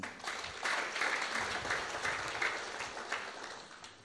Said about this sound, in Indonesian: Berikan tepuk tangan.